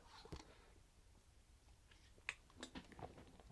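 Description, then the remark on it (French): Someone takes a quiet sip of a drink, with soft mouth clicks and a small swallow in otherwise near-silent surroundings. “Alors je bois une gorgée, on en parle.”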